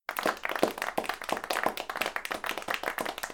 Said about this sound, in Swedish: De får en liten golfklapp. Lagom applåd.